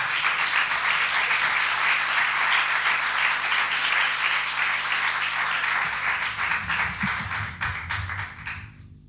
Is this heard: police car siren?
no